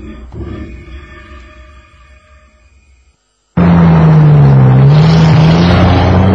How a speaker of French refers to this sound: Dans la nuit, il y a du brouillard, un brouillard très épais, et bientôt, une fois de plus, le camion doit s'arrêter.